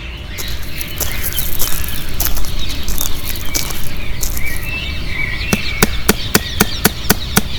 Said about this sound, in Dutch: En zo kwam het dat Luther in 1517 in Wittenberg een kleine stad in het midden van Duitsland, op de deur van een gloednieuwe kerk een brief spijkert op de houten deur.